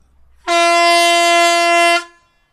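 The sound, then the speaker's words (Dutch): A single loud, sustained air horn blast lasting about a second and a half, rich and brassy, starting abruptly and cutting off cleanly, with no voices over it. “maar speciaal voor deze ik ga, ik even, ga ik even toeteren, jongens.”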